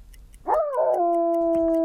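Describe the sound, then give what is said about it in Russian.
A dog lets out one long, mournful howl that swells in quickly, wavers briefly, then holds a steady pitch, fairly loud, with faint ticking in the background and no talking. “«Проклятая собака!» — проворчал он”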